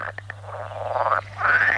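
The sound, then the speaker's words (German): Frogs and toads calling at a puddle: a couple of quick clicks, then two sustained, buzzy trilling croaks of moderate loudness over a faint steady low hum, with no one speaking. “Und das reicht ja dann sogar aus, dass da dann Frösche kommen und Kröten und drin Leichen oder Molche.”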